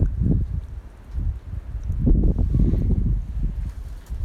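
Wind gusts outdoors at night under a starry sky, buffeting the microphone in a steady low roar that swells and eases in uneven waves, with no voices.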